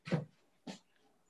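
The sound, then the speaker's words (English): A dog named JJ Andrews whimpers twice in quick succession, two short, soft cries about half a second apart, with no talking. “That's my dog.”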